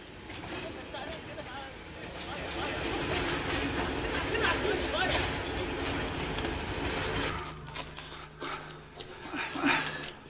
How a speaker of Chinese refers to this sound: 你们想到扒火车会什么样吗？你们看一下，扒火车是什么样？